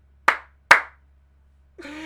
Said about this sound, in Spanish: despidamos el capítulo con un aplauso tuyo, por favor. Aplaude, aplaude.